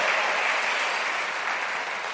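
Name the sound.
loud applause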